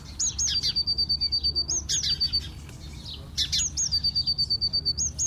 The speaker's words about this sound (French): Et les petits tup tup tup tup tup Ça, c'est des moineaux.